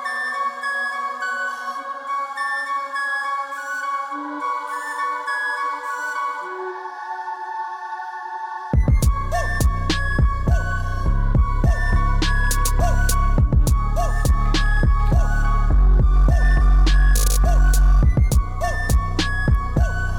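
A breathy flute melody plays on its own, then a loud, punchy electronic beat with thumping bass and crisp percussion drops in partway through, carrying the flute line along in a rap remix.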